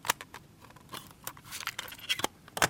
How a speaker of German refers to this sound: noch in dieser alten Europakassettenverpackung mit diesem schönen Geräusch.